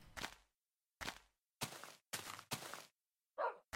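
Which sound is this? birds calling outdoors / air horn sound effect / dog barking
dog barking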